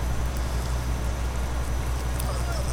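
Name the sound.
rain falling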